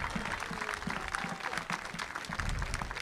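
An audience applauds steadily for the mother of a young man important to local football, many hands clapping in a dense, continuous patter with a low murmur beneath, holding at a moderate, even level for about three seconds.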